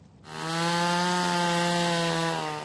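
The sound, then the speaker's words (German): A chainsaw revs up and holds a steady, loud buzzing whine as it cuts through ice in Russia to reach the water beneath for ice swimmers, the motor's tone sustained for a couple of seconds with no voices. “Zunächst sind die Motorsägen und Spitzhacken dran.”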